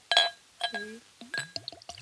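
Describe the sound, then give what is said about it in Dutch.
Glass clinks at the start, then Johnnie Walker Black Label whisky glugs and splashes in a quick rhythmic series as it is poured, with no talking. “die zei dat hij, eh, hij gek was op Johnny Walker's Black Label. Mhm. dus, dus die heb ik meegenomen.”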